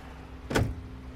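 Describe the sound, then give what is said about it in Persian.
A single short clunk of a car trunk latch opening, fairly loud, over a steady low engine hum, as a passenger opens the trunk of a car stopped at the roadside. “پیاده شدم و کاری که بهم گفته گفت انجام دادم در صندوق عقب ماشینش رو باز کردم”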